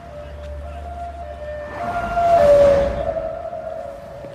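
A police siren's sustained, gliding tone, essentially playing part of a musical theme, sounds over a low rumble on a street in Bucharest, growing louder as it passes around the middle, then easing away while the tone continues.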